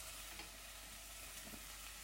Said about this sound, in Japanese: 今ね人参ちょっと1センチぐらいの輪切りをあの短冊に切ったのとその白菜の芯の部分ねよく炒めておりますが